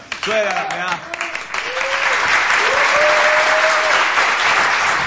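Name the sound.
applause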